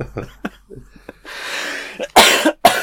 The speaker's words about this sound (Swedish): Åh, oh, får mig inte att skratta. Nu börjar jag hosta ännu mer.